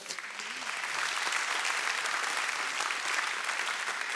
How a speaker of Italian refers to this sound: Eh, tra i nostri ospiti che io eh, presenterei, eh, Renato De Maria, Roberto Ciccutto, Sabino Impacciatore, Daniele Lucchetti e Maurizio Ponzi, un applauso unico.